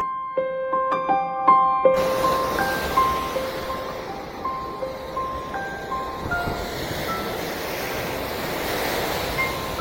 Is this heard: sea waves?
yes